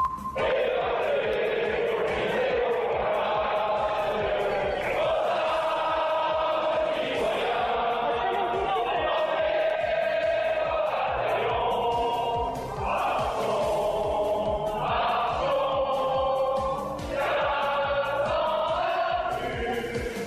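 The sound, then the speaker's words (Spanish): Legislators in the French lower house sing La Marseillaise together, loud, continuous and reverberant, with rising and falling phrases and a rough, shouting edge of booing against President Macron. “El enojo entre los franceses creció luego de que el presidente optara por una facultad que le otorga la Constitución para saltarse la votación en la Cámara Baja, cuyos legisladores se manifestando cantando la marsellesa y con abucheos contra Macron.”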